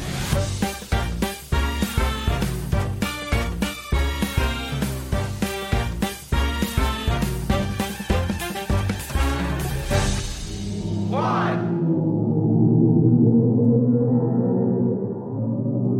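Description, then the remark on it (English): After a burst of loud, rhythmic music cuts off, a deep, ominous drone swells in with eerie, moaning tones that hang and waver for several seconds, with no voices: the sonified sound of a black hole in the Perseus galaxy cluster, its pressure waves' ripples in the cluster's hot gas translated into a note. “This is the ominous sound of a black hole. It comes from the Perseus Galaxy cluster.”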